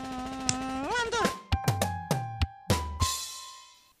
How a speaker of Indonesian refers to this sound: Tuh. Ih. Nyamuk.